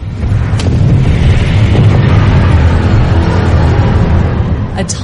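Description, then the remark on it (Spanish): A loud, sustained earthquake rumble, deep and roaring, with a steady grinding texture for about five seconds and a couple of brief cracking bursts near the start and end. “Y lo que hace es que con el tridente provoca un fuerte terremoto.”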